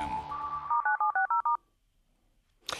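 A quick run of about five short electronic beeps, crisp and fairly loud like phone keypad tones, follows a steadier tone and then gives way to near silence before a brief noisy burst; a beep signal in a Vesti FM radio broadcast.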